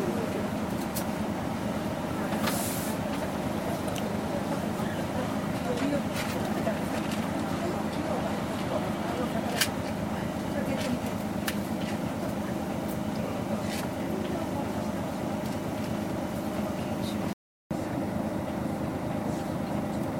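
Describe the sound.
A Tokyo Metropolitan city bus engine idles with a steady, low rumble that continues unbroken throughout, joined by occasional faint clicks and muffled background voices.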